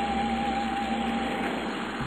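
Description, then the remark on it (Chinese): A steady engine rumble with a constant tonal hum runs evenly throughout as a bus arrives at a bus stop, holding at a fairly even loudness with no voices. “然而，他听到了嘟嘟嘟的汽车声，车子来了。”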